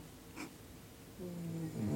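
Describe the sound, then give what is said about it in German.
Faint, low snoring from a resting pet lying beneath the speaker, a soft rumbling breath that grows slightly louder and more nasal toward the end, with no talking. “Die Pippa, die liegt unter mir und schnarcht. Ihr hört sie, ich bin mal ganz leise.”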